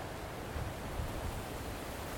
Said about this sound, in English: It's really windy out, so I don't know how this is going to sound. Should be all right.